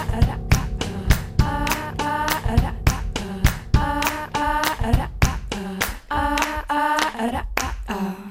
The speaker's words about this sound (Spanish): y juega con la voz, luego tararea los instrumentos que están sonando y luego acaba haciendo combinaciones de coros y palmas. tararea. Mira, cómo juega. Con corros, palmas y batería.